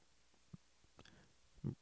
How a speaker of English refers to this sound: burp number five or six or whatever.